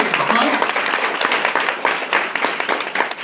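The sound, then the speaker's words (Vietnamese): An audience claps steadily to welcome newcomers, dense overlapping applause that stays loud and even for the whole few seconds, with no voices standing out. “Oh, okay, so give them the biggest hand because they're new.”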